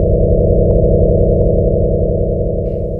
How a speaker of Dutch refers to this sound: Dit is een ster die trilt zoals onze zon.